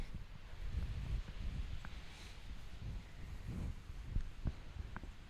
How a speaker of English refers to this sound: Ooh, can you hear the ocean? That's amazing.